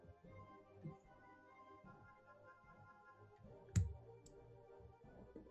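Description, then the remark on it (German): Dice rolled for a crossbow attack clatter onto a hard surface: a sharp rattling click followed quickly by a second, lighter tap, against a faint hum with no one speaking. “Na dann, würfel mal.”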